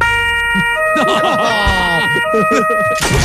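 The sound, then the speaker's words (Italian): A loud electronic siren effect, set off directly from the speaker's station, blares with steady high tones and sweeping wails, while a voice talks excitedly over it throughout. “Ma che ne so, magari potrebbe partire per caso una sirena azionata da me no. da qua direttamente dalla postazione, tipo così, eh?”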